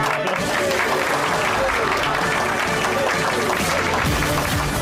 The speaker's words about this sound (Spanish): Bueno, bienvenidos a los tres, bienvenidos. Eh, aplausos.